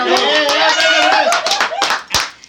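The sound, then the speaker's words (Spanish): A small group claps loudly and rapidly for a couple of seconds after a card trick, while excited voices shout and cheer over the applause before it trails off. “Si me sale, se paran y aplauden chingón, ¿eh?”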